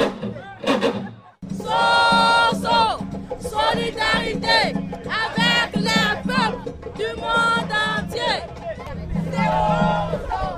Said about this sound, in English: Solidarity with the women of the entire world was only one of the many slogans that were shouted today at the opening rally of the World Social Forum in Dakar on February 6. Between 6 to 10,000 people gathered in the center of town.